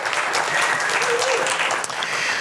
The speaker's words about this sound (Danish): Ja, giv ham lige en klap